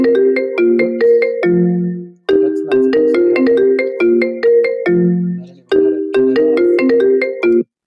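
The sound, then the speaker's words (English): A loud electronic phone ringtone for an incoming call plays a bright, bouncy melodic phrase, repeating it twice with a short pause between, with no voices. “okay, that's one of my very special patients calling me.”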